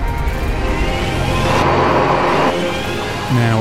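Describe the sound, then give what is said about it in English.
A Rimac Nevera, a four-motor electric hypercar, whines loudly at over 250 miles per hour on the Automotive Testing Papenburg track in Germany, driven by Miro Zrnčević, its motor pitch climbing steadily over a heavy roar of wind and tyres, continuous for a few seconds. “might not sound like it due to its electric power source, but the four engines Nevera zoomed to speeds of over 250 miles per hour on a German test track.”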